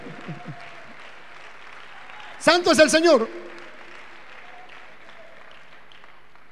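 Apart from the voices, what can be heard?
audience applause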